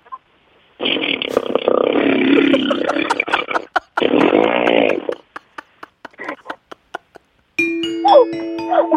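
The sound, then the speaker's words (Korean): A second-year high school girl imitates a motorcycle engine as an encore on a radio show, with a long revving roar, a second burst, then a string of sputtering pops before another steady, higher-pitched engine-like drone. “다시 한번 자 고등학교 2학년 여학생이 내는 오토바이 소리입니다.”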